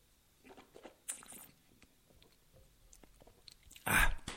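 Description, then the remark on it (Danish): Soft mouth sounds of someone taking a last sip of wine and swallowing, with faint lip and tongue noises, ending in a brief louder burst as the sip finishes. No one speaks. “Jeg tager lige øh, en sidste slurk af den her museerne.”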